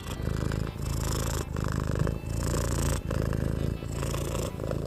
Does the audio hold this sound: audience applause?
no